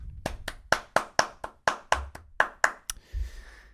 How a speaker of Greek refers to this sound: Ένα χειροκρότημα παρακαλώ.